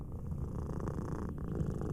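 A cat named Behemoth purrs steadily while held on a sofa and petted, massaged between its eyes with a finger; a continuous low rumbling drone with a soft rhythmic pulse, fairly quiet and uninterrupted for the whole stretch with no voices.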